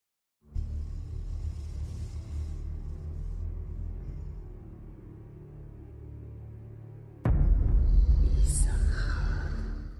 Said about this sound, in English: You're listening to Gruul's theme from Magic the Gathering Arena, originally released on September 26, 2019